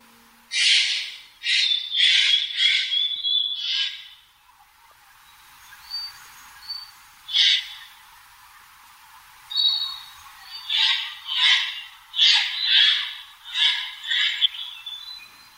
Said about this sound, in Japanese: 雑木林の中から聞こえてきたのはカケスの鳴き声です